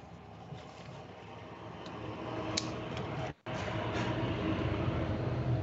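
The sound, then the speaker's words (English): About 20 tractor trailers rumble past a house on a back road in a steady, loud roar of engine and road noise, with a deep low drone that barely lets up, broken only by a split-second gap midway. “I like 20 tractor trailers going past my house all the time.”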